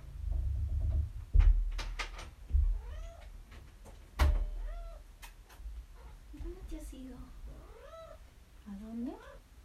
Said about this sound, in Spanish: Perdonen, pero mi gato, mi gato me está llamando, lo siento. Déjame un segundo.